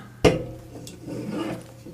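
A small can is opened with one sharp, loud crack, followed by a faint click and a soft hissing, rasping fizz that trails off. No one speaks.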